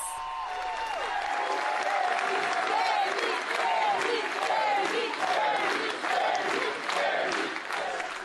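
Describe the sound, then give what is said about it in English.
An enthusiastic crowd cheers and applauds in a steady, dense roar, welcoming Kemi Seba as he makes his entrance flanked by security guards, with clapping and shouting voices rising and falling throughout, loud and continuous for the whole stretch. “An enthusiastic crowd welcomes the man who presents himself as the new voice of African unity and independence.”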